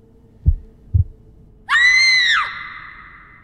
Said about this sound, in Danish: det eneste, han hører, er hans egen hjertebanken og en rungen for ørerne. Det bliver først afbrudt, da … træder op på siden af ham – og giver et højt skrig til kende